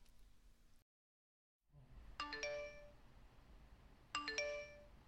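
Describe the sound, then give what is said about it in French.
A phone notification ringtone announcing a new email chimes twice, each a short bright cluster of bell-like notes that rings out and fades, with a brief pause between the two, against faint background hiss, at 10:30 pm on Wednesday, 17 May. “Il est 22h30, on est mercredi 17 mai et on vient de recevoir une notification.”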